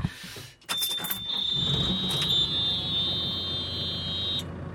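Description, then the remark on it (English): A shrill, high-pitched vehicle warning beep sounds almost continuously for several seconds over a low, rumbling engine, loud, with no one speaking. “Once again, I'm assured that beeping is normal.”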